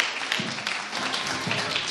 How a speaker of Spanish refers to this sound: Un aplauso, por favor.